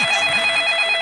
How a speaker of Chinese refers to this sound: 哎，不好意思啊，我接个电话。